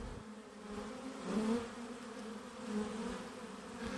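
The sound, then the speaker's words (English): A steady, dense hum of many honeybees buzzing together around their colony, a continuous drone with pitch wavering slightly as individual bees pass by. “Honey Bees”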